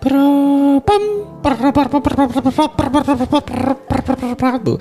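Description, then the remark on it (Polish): A voice imitates a dial-up modem connecting: a long steady tone, a brief burst, then a run of warbling, chirping squeals, loud, with no other talk. “czy ty na naśladujesz takie, teraz modem?”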